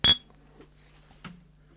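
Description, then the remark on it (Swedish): A sharp, bright clink of glasses touching in a toast rings out at the start, followed by a fainter second tap and a soft hum in the background. “Systemet Skål”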